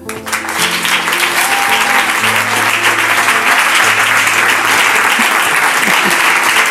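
Steady, sustained applause from an audience welcoming a guest being introduced, a dense wash of clapping that stays loud for the whole stretch, with low sustained tones humming underneath.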